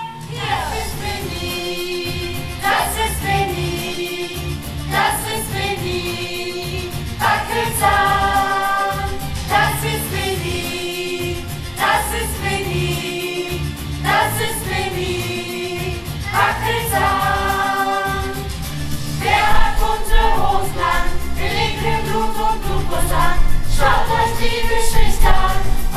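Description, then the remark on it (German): An upbeat, catchy song from a children's musical about a little vampire who doesn't like blood plays loud, with sung melody lines over a full band and a steady bouncing rhythm that grows fuller toward the end. “beim Kindermusical Winnie Wackelzahn, das äh, ist, hat Ralf Israel geschrieben”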